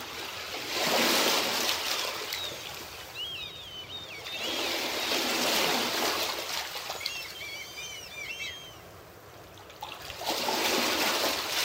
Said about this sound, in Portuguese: A maré está calma. Ouvimos as pequenas ondas quebrando na beira. As gaivotas que avistamos de longe passam por nós.